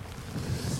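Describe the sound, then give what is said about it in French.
A short burst of outdoor wind and rain falling on the face during a walk, low rumbling gusts buffeting the microphone over a steady wash of background noise, with no voices. “C'est le bruit de la pluie comme ce qu'on a là en ce ah moment sur le visage.”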